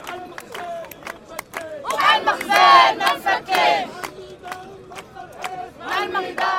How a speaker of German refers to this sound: So hören sich Demonstrationen in Marokko an.